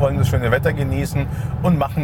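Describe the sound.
A steady low road rumble fills the cabin of an electric car driving south on the 995 motorway at about 100 to 110 km/h, running continuously beneath a man talking.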